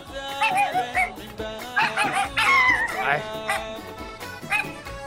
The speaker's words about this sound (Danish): Ja, der har en hund med der også. Det er lyden, det Nej, hvor hyggeligt. Den er sød. Jeg elsker hunden. Det er en rigtig sød hund.